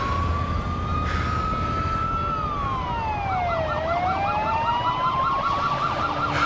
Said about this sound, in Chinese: 恰恰慢了一步的 Michael 等人望着远去的飞机信号灯，此时附近的警笛声此起彼伏，只能再次逃跑。